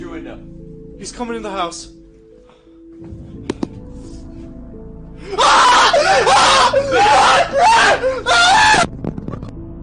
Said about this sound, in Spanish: Los gritos de terror son auténticos